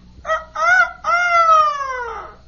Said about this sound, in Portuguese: Agora eu sou um galinho. E amiguinhos, vejam só. Em vez de Kikiriki, Cocoricó?